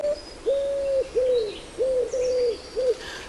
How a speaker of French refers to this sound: Alors souvenez-vous, je vous ai quitté sur le pigeon ramier la dernière fois. C'est le chant d'oiseau que j'entendais tout proche dans la période bénie de mon enfance et qui m'y ramène instantanément quand je l'entends.